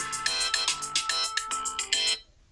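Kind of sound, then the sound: signal or alarm, timer alarm ringing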